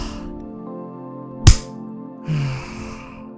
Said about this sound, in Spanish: Entonces, inhala, sostén la respiración y cuando escuches mi aplauso, exhala el sonido de ah.